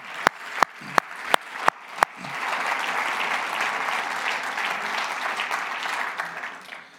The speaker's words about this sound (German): Hammer! Geben wir Applaus für Abgeordnete. Yeah! Come on!